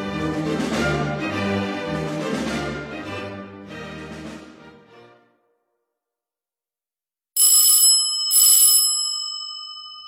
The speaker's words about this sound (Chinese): 当亚瑟按响维亚波拉大街那幢豪华住宅的门铃时，天早已黑了下来。